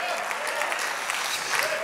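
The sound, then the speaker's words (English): An audience claps steadily to show belief in the Holy Ghost, a dense crackle of many hands with no pauses. Faint voices mingle beneath the applause. “I wish everybody would clap if you believe the Holy Ghost can do that.”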